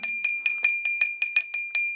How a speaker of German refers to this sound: Du brauchst da äh, auch eine Klingel zum Klingeln.